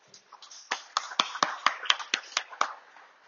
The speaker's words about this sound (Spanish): Y dale un fuerte aplauso a Dios.